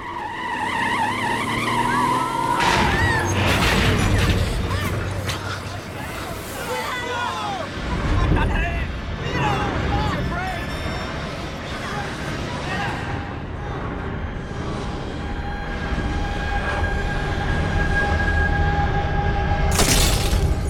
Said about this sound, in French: L'autobus percute un tramway de plein fouet. L'accident est violent. Plusieurs personnes y trouvent la mort.